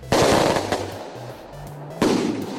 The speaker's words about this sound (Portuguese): Deixa eu mandar uma, uma bomba aqui. Eita! Vai que vai. Oh, pegou. Aqui, ó. 12 tiros, 12 tiros.